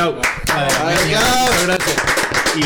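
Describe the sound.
A group in the La Turca studio in San Andrés Giles claps steadily in a dense, continuous patter of hand claps, with voices talking and calling out over the applause throughout.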